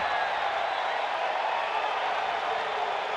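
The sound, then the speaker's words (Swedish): A large crowd roars and cheers steadily at a baseball game in Angel Stadium at the start of the sixth inning, a dense, continuous wash of voices at fairly high volume with no pauses, and no single speaker standing out. “And that brings out the cheers here at Angel Stadium.”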